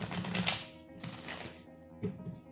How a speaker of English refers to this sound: Okay. So shuffle these cards.